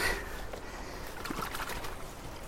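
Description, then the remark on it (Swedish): Water sloshes and splashes steadily as the contents of a long-handled hand net, a bottom fauna sample with some gravel and leaves, are poured into a tub of water, a continuous wet swishing with a few brief bright drips, no talking. “Och så häller jag upp det här i en balja med vatten.”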